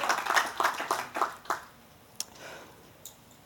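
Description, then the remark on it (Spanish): A short burst of applause for Christ, the King of Kings, with quick, fairly even claps for about a second and a half that then fade out, leaving a couple of isolated claps afterward. Moderately quiet, with no talking. “Así que denle un fuerte aplauso al Rey de Reyes y Señor de Señores por ese sacrificio.”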